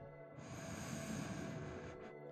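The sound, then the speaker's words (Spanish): A single strong, vigorous, drawn-out inhale through the nose, fairly loud, lasting about a second and a half before tapering off, with no talking; part of a guided breathing exercise. “Vamos a intentar una respiración fuerte y vigorosa. Inhalamos.”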